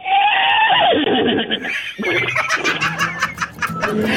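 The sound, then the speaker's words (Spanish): A person loudly imitates a horse's whinny, a shrill wavering neigh that trails off, followed by breathy, sputtering snorts and huffs, with no talking. “el relinchido”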